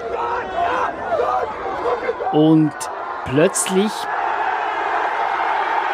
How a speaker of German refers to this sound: Wir sind in Newcastle vor dem St. James's Park, dem Fußballstadion. Es ist Oktober 2021 und man hört da die Fußballfans von Newcastle, die sich versammelt haben zu Tausenden in und ums Stadion.